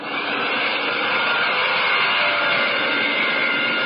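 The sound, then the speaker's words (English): A steady, unbroken roar of returning Spitfire fighter planes coming in and peeling off one after another, loud and dense with a faint whining tone on top, holding the same level throughout with no voices. “The Spits are back. What did I tell you? They're coming in. Here comes the first. He's peeling off.”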